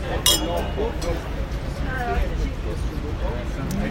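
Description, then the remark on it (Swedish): A single bright clink of glasses touching in a toast near the start, sharp, followed by low murmuring voices and background noise. “Tack. Skål. Skål. Igen.”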